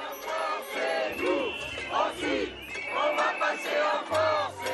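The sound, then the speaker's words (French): A crowd of protesters boos and shouts at Emmanuel Macron outside the collège in Gange, Hérault, in the morning, with pots and pans, in overlapping bursts: loud rising and falling jeers with raised voices layered over a constant rumble of crowd noise. “Emmanuel Macron, une nouvelle fois hué ce matin par des manifestants devant le collège de Gange dans l'Hérault.”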